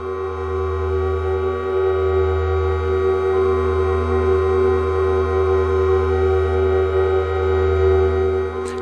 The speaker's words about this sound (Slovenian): je prazno mešalno mizo povezal tako, da je lahko posnel raznolik razpon frekvenc povratne zanke, nizkih, skrajno visokih, čistih in hrupnih, ob tem pa tudi repetitivne ritmične elemente.